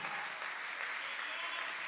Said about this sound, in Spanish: Den un fuerte aplauso al Señor con el corazón.